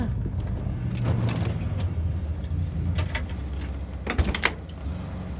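A car door is worked open at nearly 3 a.m. as a passenger demands to be let out, with several sharp latch and handle clicks over the steady low rumble of an idling engine, with no talking.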